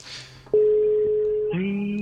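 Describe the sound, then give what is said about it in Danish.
A single steady telephone ringing tone of an outgoing call sounds for about a second, loud, then gives way to a lower, buzzy line tone. No one speaks. “Vi ringer til ham for at høre.”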